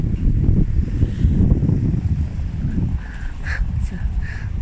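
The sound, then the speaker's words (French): Strong outdoor wind at the Place du Plot roars and buffets the microphone with a constant low rumble, gusting heavily at first and easing slightly toward the end, where faint higher tones peek through. “il y a beaucoup de vent ici.”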